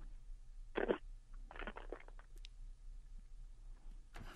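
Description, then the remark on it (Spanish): Someone mimics a pigeon's coo with their voice: one throaty burst, then a quick run of soft fluttering pulses, and another sound starting at the end. It's quiet, with no words. “Pero la segunda parte es una paloma.”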